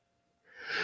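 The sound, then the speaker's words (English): A single sneeze bursts out after a brief quiet moment, a breathy, hissing blast that swells quickly, with no talking. “bless you.”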